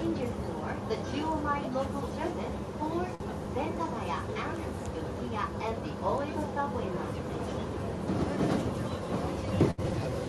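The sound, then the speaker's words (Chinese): A Tokyo Yamanote Line commuter train running toward Shinjuku Station: a steady low rumble and hum carries on throughout, with people's voices chattering over it and a brief clunk near the end. “这是三手线的声音。”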